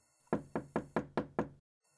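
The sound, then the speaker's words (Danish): Six firm knocks by Geo on the wooden door of a witch's house in a quick, steady rhythm, fairly loud, followed by a brief silence. “Give bliver meget nysgerrig og banker på.”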